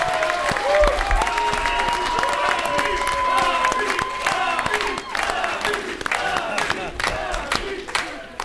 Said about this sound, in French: On, travaille dans l'ombre, mais elle mérite grandement d'applaudissements.